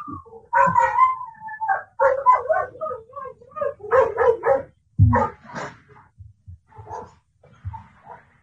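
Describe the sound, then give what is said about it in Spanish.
A small, mischievous dog barks in short repeated bursts, mixing high yips with whiny whimpers between them, loud against an otherwise quiet background. “Creo que aquí hay un perrito que anda de traviesito.”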